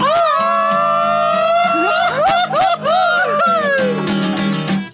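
A loud, close Mexican ranchero grito: a long sustained yell that breaks into wavering, laugh-like trills and pitch swoops, ringing out over a steady low hum for about five seconds.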